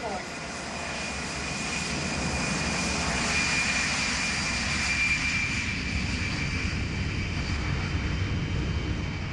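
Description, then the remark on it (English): An Aer Lingus passenger jet's engines roar in a steady, continuous drone with a faint high whine, loud, heard from inside the cabin, with indistinct voices faintly beneath it. “We were on an Aer Lingus plane.”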